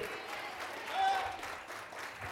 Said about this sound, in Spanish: Así va a aplaudir, aplaude fuerte, porque si no, no aplaudimos nada. Le dije que lo que se hace para Dios, se hace con todo.